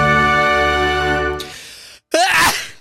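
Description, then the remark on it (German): A loud sneeze bursts out after a sustained tonal hum, followed by a brief gap and a second sharp, breathy sneeze. “Du bist ja lei am Niesen”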